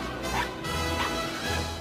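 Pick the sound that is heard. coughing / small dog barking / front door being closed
small dog barking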